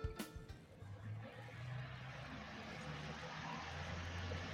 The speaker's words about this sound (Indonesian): Ini suara hujan nih, kedengeran nggak?